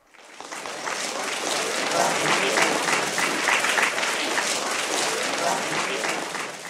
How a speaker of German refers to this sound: Der Kaiser, Kaiserin und das ganze Volk haben die Hände klatschen.